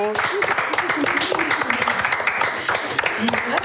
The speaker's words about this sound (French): Et je propose qu'on fasse pas un jingle, mais plutôt des applaudissements